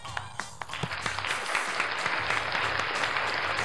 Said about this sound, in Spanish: Muy bien, Tito. un aplauso para vos, Tito.